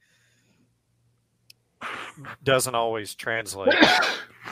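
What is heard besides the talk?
sneeze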